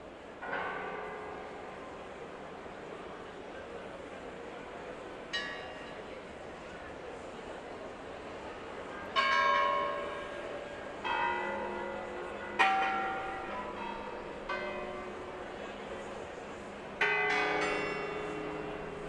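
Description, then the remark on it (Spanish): Church bells ring out from a bell tower, with several distinct clangs at irregular intervals, each strike leaving a long shimmering hum that fades under a steady background wash. “pues te esperamos, vamos a ver campanas, vamos a medirlas, vamos a verlas.”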